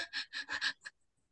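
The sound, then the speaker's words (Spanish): A person demonstrates hyperventilation with five quick, sharp gasping breaths in rapid succession, breathy, then they stop and silence follows. “como cuando uno llora, se han dado cuenta que uno solloza, tampoco respira normal.”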